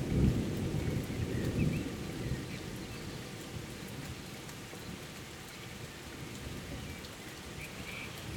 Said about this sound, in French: Et euh, là, en ce moment, la pluie fait énormément de bien à la nature. Et on entend l'orage.